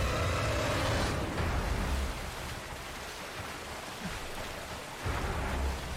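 Loud, steady rush of water fills the whole clip, a broad roaring wash with low rumbling surges at the start and end and no voices.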